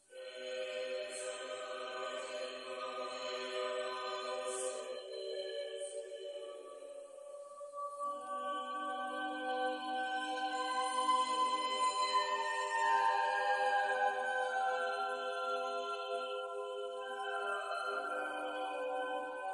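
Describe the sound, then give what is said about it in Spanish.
A choral Miserere sung by many voices, sustained harmonies swelling slowly and growing fuller midway, steady and reverent with no spoken words over it. “Y bueno, pues aquí les dejo un pedacito de lo que es ese miserere y que lo escucharon de fondo casi en todo el cuento.”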